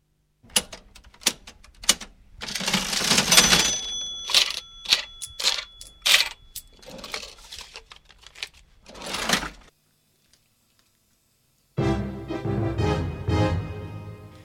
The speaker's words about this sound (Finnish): Ja nyt seuraa viikon koneääni, joka on tällä kertaa kassakone.